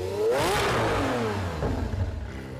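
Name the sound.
lamborghini V12 engine revving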